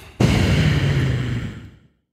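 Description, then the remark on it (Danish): A single rushing breath blown straight into a microphone, starting abruptly with a loud windy roar and low rumble, then fading out after about a second and a half. No one speaks. “alle har bare hørt mig ånden ind i den her mikrofon mm. 40 gange i dag.”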